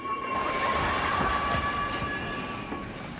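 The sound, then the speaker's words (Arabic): A subway train in a scene from the sitcom Seinfeld rumbles steadily, a high motor whine drawing out over the noise as it slows toward a stop. No voices. “بسمعكم مقطع انعرض في مسلسل قديم هو اسمه ساينفيلد لشخصية علقت في القطار اسمعوه بعدين نرجع نكمل”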